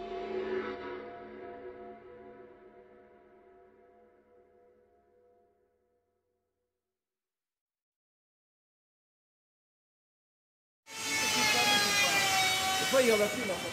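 A ringing, harmonic tone fades away over several seconds, then after a long silence a loud, harsh saw suddenly starts cutting while people shout over it in another language.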